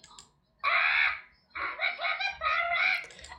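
A parrot squawks in harsh, raspy bursts: one loud screech, a short pause, then a longer choppy run of squawks, close and fairly loud with no other sounds around it.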